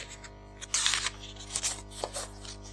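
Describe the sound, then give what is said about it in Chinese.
A book page being turned: a soft, papery rustle with a crisp flip, then a couple of lighter brushing sounds as the sheet settles. Quiet, with no talking. “等一下，我在翻页。”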